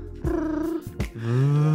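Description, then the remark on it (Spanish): A voice imitates a mobile phone vibrating as it rings, with steady humming buzzes: two short bursts, then a longer, louder drone that slides slightly in pitch, clear. “Y luego ya acá suena, ¿no? Vibrando.”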